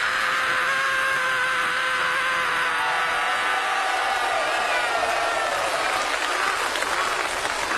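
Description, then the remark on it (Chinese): A single voice imitates roaring football fans at the 2002 Korea-Japan World Cup match between China and Brazil, as a live-atmosphere sound effect: one long, loud, unbroken shout held for about eight seconds, blending into a steady wash of applause and crowd noise. “就是那个观众球迷连嚷带喊那劲头。”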